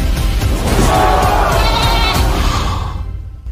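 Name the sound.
goat bleating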